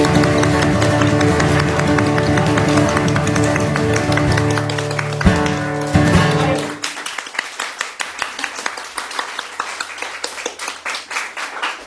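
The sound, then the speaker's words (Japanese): A sustained musical tone fades out at the end of a sung song, and steady applause follows for the last few seconds: a quick run of sharp, even handclaps with no voices. “俺は今ありがとうございます言わずに拍手が生まれたぞ”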